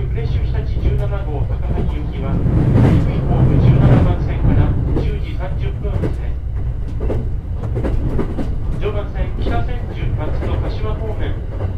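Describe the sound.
The Night Limited Express Cassiopeia rolls along the tracks into Ueno station, its terminus, with a steady low rumble and hum, punctuated by irregular clattering clacks of wheels over rail joints, with indistinct voices faintly mixed in.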